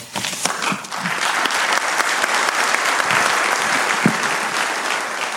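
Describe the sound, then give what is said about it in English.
A crowd at a county public meeting claps steadily for about five seconds after a speaker finishes, a dense, even wash of many hands at a fairly loud level with no voices over it. “And again, I'd remind everybody please hold your applause.”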